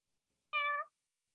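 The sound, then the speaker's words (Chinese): A single meow voiced by a person imitating a cat, a short harmonic call lasting about a third of a second, moderately loud and alone against silence. “不是我， 不是，那是人发出的声音。”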